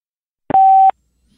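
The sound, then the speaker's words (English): A single steady electronic beep over a phone line, clear and fairly loud, lasting under half a second with short clicks at its start and end, then silence; the beep signals a caller is on the Beautiful Anonymous show with the host. “A beeping noise will indicate when you are on the show with the host.”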